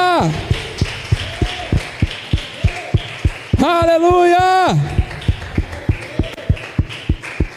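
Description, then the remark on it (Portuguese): An audience at a Christian worship service claps in steady unison, sharp rhythmic claps roughly three per second throughout, as the people are urged to clap hard after calls of amen. A loud voice calls out over them midway and speech runs underneath. “Aplauda com força!”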